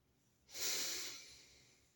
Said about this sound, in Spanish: Poder hacer una respiración profunda